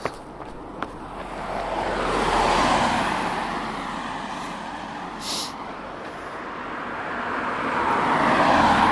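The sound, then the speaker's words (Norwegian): Steady rush of road traffic as cars pass by while a person runs across the road, swelling and fading with each one, a broad continuous roar with a couple of sharp clicks near the start and no talking. “nå springer Erika over veien. Det syns jeg var litt uforsvarlig, faktisk. For der kommer biler.”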